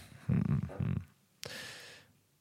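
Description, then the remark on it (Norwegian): A chair creaks: two low, rough groaning strains followed by a sharp onset into a higher, whiny squeal that fades after about half a second. No one speaks. “Det var stolen.”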